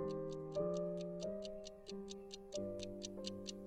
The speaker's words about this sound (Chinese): 大厅里安静了下来，只剩下钟表的滴答声和三个人的呼吸声。